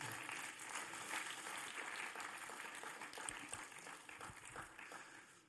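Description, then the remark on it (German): A crowd applauds steadily, dense overlapping claps forming a continuous roar of clapping that holds for several seconds before tapering slightly at the end. “Genau, es darf gerne Applaus geben.”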